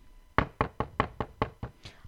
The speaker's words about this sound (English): Eh, but it's not the cop knock. No, but you did the cop knock. So, you know, and you, you figure, okay. Nope. You look out the window and be like, who the fuck knocking at my door?